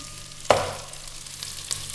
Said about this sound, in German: jetzt erhöhen wir die Hitze und während wir jetzt die Zwiebel leicht äh, anbraten und dass sie glasig werden, mhm.